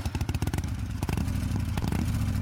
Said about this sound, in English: or even this. Before you turn a key, step on the gas and let it rip.